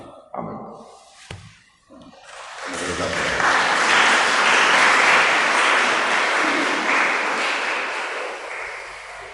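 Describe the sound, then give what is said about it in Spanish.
A crowd bursts into loud, sustained applause in reaction to the words of Pope John Paul II, after a few brief vocal sounds, the dense clapping swelling quickly and holding steady for several seconds before easing slightly. “Ja aplaudido como el Papa”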